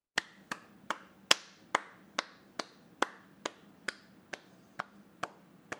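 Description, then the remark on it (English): A single person claps about fourteen times at a steady, unhurried pace. Each clap is sharp and crisp, and a few in the first half land noticeably louder. No one speaks. “clapping is not talking, so you can audibly clap.”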